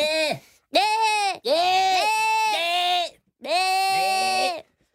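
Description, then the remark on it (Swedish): Human voices mimic screaming goats with a run of loud, wavering bleats, several strained cries in quick succession separated by brief pauses. “Det låter, jag tycker det låter som sådana screaming goats.”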